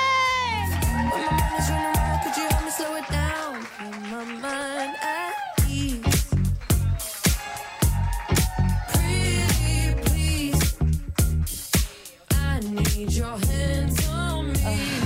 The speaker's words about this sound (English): Start clapping right now in a big, big way. Go crazy.